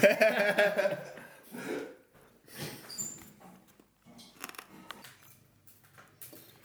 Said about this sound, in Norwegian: Vil du at jeg skal legge inn en ny kubbe i ovnen? Ja, så jeg ikke fryser litt.